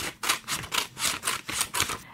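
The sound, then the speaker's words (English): Scissors snip steadily through paper, cutting a rectangular piece about 8.5 by 11 inches, in a quick series of about eight crisp, rustling cuts, moderately loud, with no voices. “And remember, since we're using scissors, you'll need the help of a grown up.”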